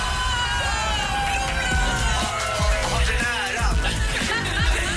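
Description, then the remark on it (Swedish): A large crowd at a celebration on a Friday cheers and shouts continuously, with many overlapping high-pitched voices, whoops and children's yells forming a loud, sustained wash of celebratory noise with no pauses. “Det där var ju alltså ljud från i fredags.”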